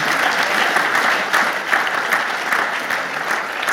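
Sustained audience applause at the Kino International cinema, thanking the office staff who organized the event, a dense steady wash of many hands clapping at an even loudness throughout, with no voices standing out above it.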